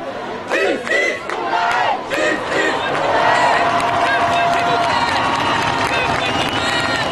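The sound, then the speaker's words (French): A very dense crowd on a silent march (marche blanche) in Nanterre at 2 pm on Thursday 29 June, a woman seated on a van roof at the head of the procession; overlapping shouts and raised voices form a loud, continuous roar that swells in bursts, including a sustained rising chant in the middle. “Une foule très dense, avec en tête de cortège, assise sur le toit d'une camionnette, la maman de Naël.”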